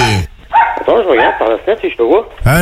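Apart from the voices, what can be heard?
dog barking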